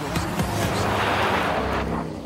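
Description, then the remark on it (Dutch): A car engine roars steadily for a couple of seconds, a low rumbling drone under loud broad hiss of tires and wind, as an Audi RS Q3 drives across a frozen lake in Swedish Lapland. “En hij had ook een leuke auto bij zich. Audi RS Q3.”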